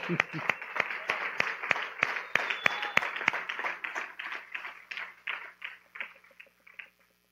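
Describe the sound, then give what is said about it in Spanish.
An audience at a sermon breaks into applause, a dense patter of many hands clapping with sharper individual claps standing out, holding steady for several seconds before gradually thinning and fading out. “Un aplauso.”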